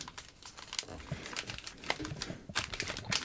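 Paper being taped together: a steady run of crisp, irregular crinkling and crackling, with sharp little rustles and snaps scattered throughout at moderate loudness.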